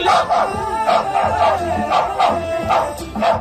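A dog barks repeatedly in a steady rhythm, about seven sharp barks close by, loud and clear with no talking over them.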